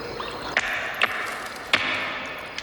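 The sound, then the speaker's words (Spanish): Water drips off a stone lifted out of water, falling in a few sharp, irregular plinks over a steady soft hiss, with no talking. “Observe esta piedra. Ha estado en el agua durante muchísimo tiempo.”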